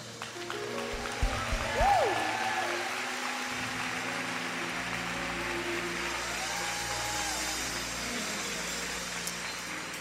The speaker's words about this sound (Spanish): Gracias por los que aplaudieron. Ese es un re honrar a los que Dios está honrando.